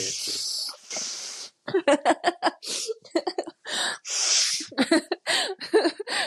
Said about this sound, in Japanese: ラジオ、ラジオ、ラジオで鼻水の音聞かせるのって私が史上初じゃない、うん、大丈夫 編集できるから。